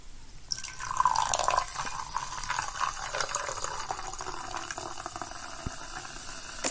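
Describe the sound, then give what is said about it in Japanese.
A carbonated drink is poured from a bottle into a glass, recorded on a DR-05X recorder with its limiter on, with a gush at the start followed by a steady crackling fizz of popping bubbles that continues for several seconds, with no voices. “おー、炭酸が効いてますよ。”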